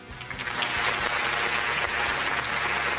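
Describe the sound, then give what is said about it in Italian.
A crowd claps steadily and loudly at a competition event with 106 registered teams, a dense wash of many hands applauding that builds quickly and holds strong for the full few seconds. “Io a tutti quanti, un secondo, eh, voglio donare questo applauso.”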